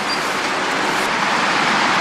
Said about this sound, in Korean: 이제 차 소리만 들리네요.